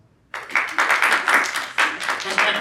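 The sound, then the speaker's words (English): After a brief moment of quiet, a panel audience at LA Comic Con bursts into applause: dense, steady clapping that stays fairly loud and continuous, with slight surges in intensity throughout. “Applause for applause.”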